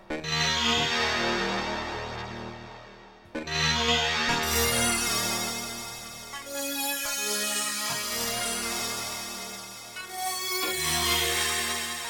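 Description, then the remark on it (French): A wavetable synthesizer plays thick, bright sustained chords with a gritty, shifting timbre. It pauses briefly, then returns loud and full, and no one talks over it. “Euh, un petit côté quand même wavetable qui est, qui est sympa.”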